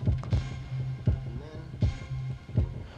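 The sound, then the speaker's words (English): Modular synthesizer percussion from a Tip Top module added to the patch for extra percussion: punchy electronic hits, some doubled, land at uneven intervals over a steady low droning hum, moderately loud. “So what's cool about this, uh, what I like about this, this piece that I did with the atom is you can build it bring in a little bit of that tip top one for a little extra percussion to make it a little more interesting.”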